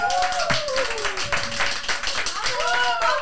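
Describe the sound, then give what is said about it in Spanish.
Steady applause from a group, dense overlapping clapping that holds at an even level throughout while two late guests come in, with voices calling out and chattering over it. “¡El aplauso”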